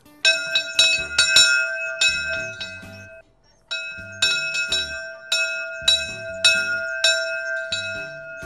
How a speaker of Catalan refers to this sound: I hi ha la campana. I aquesta campana fa el soroll d'abans perquè és una campana molt vella que ve de Prada.